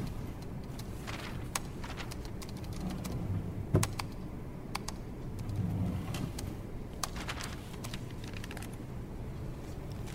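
Someone types on a computer keyboard while checking the computer, in scattered, irregular bursts of sharp key clicks over a steady low background hum. No one speaks.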